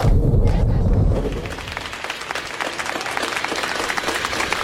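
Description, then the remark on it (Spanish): After a brief low rumble, people on balconies above a street applaud, as every day at 8, for astronomers trying to find an asteroid's impact site: dense, steady clapping from many hands that keeps going at an even, moderately loud level until the end. “Hola compañeros, aquí estamos en plena calle y como todos los días a las 8 y de manera espontánea, la gente sale a los balcones para aplaudir a estos astrónomos y astrónomas que están intentando averiguar cuanto antes el lugar del impacto del”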